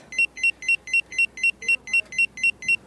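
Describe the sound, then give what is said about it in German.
A restaurant pager beeps in a fast, steady series of about a dozen sharp, high electronic tones, fairly loud, with faint room noise underneath and no one talking. “So, Piepser gekriegt. Gleich kommt unser Zeug.”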